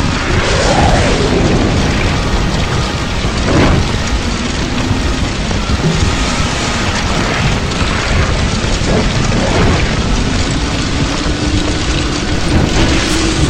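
Heavy cannon-like shots boom out a few times amid a constant, loud, roaring rumble, like thunder or rain; no one speaks.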